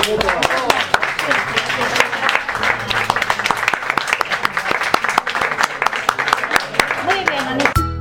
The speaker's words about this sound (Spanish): Venga chicos, son y 40. un aplauso.